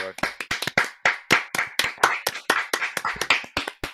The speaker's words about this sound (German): da, da, dürfen wir mal klatschen, oder? Das hat schon verdient.